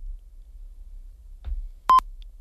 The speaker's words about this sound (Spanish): nos ha cortado, se ha cortado la, llamada.